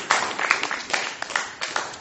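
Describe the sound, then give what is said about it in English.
A church audience clapping unto the Lord while seated during an evening service, a dense, steady wash of many hands slapping with sharper peaks every so often, continuous for the whole stretch with no voices on top. “Why don't you clap onto the Lord as you're seated?”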